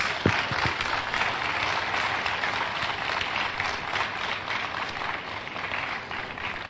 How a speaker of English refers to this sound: What a blessing. Clap for Jesus.